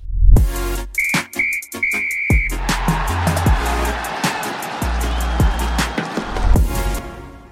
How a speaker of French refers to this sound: Eh bien, messieurs, on me dit dans l'oreillette que nous allons bientôt siffler euh, la fin du match.